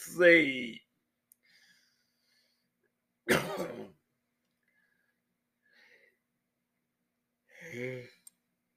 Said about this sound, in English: Sorry about that. I yawned